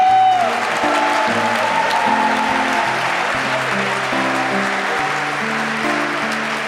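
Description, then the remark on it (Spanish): During worship, an audience claps steadily and loudly for several seconds as applause to the King, a dense wash of applause over sustained low keyboard chords that shift beneath it. “Dale un aplauso al Rey.”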